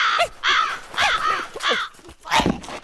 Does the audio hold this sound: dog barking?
no